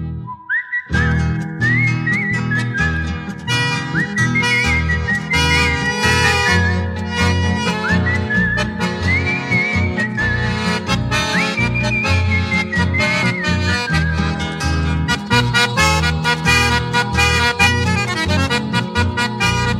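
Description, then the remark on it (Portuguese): A lilting campeira (country) folk verse is whistled clearly and continuously, with bending, ornamented notes, carried over a steady, full instrumental accompaniment from start to finish. “Eu trazia sem fastio, saudando a estrela boeira uma coplita campeira bem floreada no assobio.”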